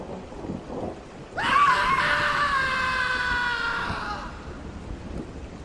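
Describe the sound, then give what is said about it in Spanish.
A man lets out one loud, sustained scream lasting nearly three seconds, breaking a silence and rising out of a steady hiss of rain and low rumbling that continues before and after it. “un silencio sepulcral, que de pronto se rompe con el grito de un, con el grito de un hombre y con la apertura de varios ojos.”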